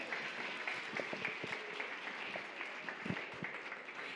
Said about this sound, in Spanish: Aplauso para Santiago, por favor.